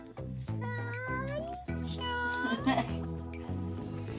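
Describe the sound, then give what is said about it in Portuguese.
A voice imitates a cat saying hello with meows, a series of drawn-out, rising cries over steady musical accompaniment, fairly loud. “e o gato dizendo olá.”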